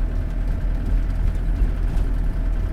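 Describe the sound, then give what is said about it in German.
A 1990 Fiat Ducato motorhome with a Hümer body runs its diesel engine steadily, a continuous low rumble with a faint tremble, fairly loud, with no voices over it. “Das ist das, das Chassis ist ein Fiat Ducato und der Aufbau ist ein Hümer.”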